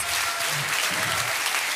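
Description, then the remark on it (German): Loud, sustained applause from an audience bidding farewell to the guests of a panel discussion, a dense wash of clapping hands that stays steady throughout, with a few faint voices murmuring underneath. “Ich bedanke mich ganz recht herzlich und verabschieden wir Sie doch mit einem riesengroßen Applaus.”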